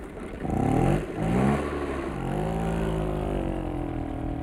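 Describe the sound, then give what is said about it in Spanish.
An engine revs up sharply twice in quick bursts, then settles into a steady, rising drone, loud, like a motorcycle throttling with no voices present. “Para que esto no nos suene tan complicado, imaginemos un servicio de mensajería en motocicleta.”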